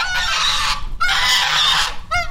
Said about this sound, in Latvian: Zosu bariņš mani sagaida Tukuma novada Dagolas pagastimontās, kur jau trešo gadu ziedus un puķu stādus audzē